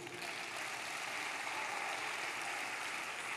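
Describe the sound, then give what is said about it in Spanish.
A church audience claps together after a blessing, as the preacher asks for applause, in a steady, dense wash of applause that holds at an even level for a few seconds, with no voices standing out. “Dele el aplauso.”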